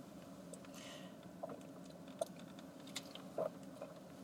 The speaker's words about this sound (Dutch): Gewoon eh, naar achter met je hoofd, denk ik. Dus gewoon ik moet in één lijn. Een slokje drinken met een kap voor mijn hoofd.